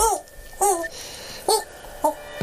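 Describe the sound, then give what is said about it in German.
A person's voice imitates a seagull, giving four short, high, strained cries with a harmonic, squawking quality, evenly spaced over a few seconds. “Ich, ich mach die Möwe.”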